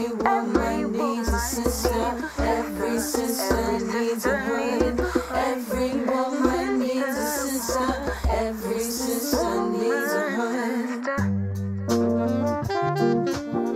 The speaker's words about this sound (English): What you're hearing is our theme song.